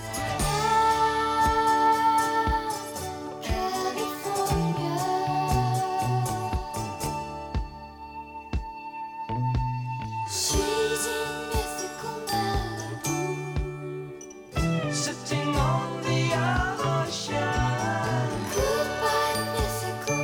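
A lead guitar fitted with a special mute attachment that changes its sound and tone plays a bright, tinkling melodic line over a full band with steady bass and drums, thinning briefly midway before the full arrangement returns; no one speaks.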